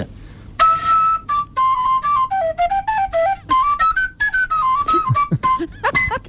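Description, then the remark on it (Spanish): A wheelchair wheel, used as a homemade instrument, blown like a flute, producing a breathy, flute-like melody of sustained notes that step up and down in pitch, played fairly loudly with no talking. “Hay uno de vosotros que está soplándole a una rueda de una bici.”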